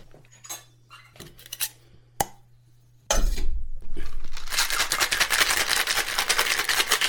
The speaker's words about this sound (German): Shake it, baby, shake it. Shake it, baby. Schön lange, damit er auch schön kühl ist. Eis vorher drin, Eis bleibt aber drin.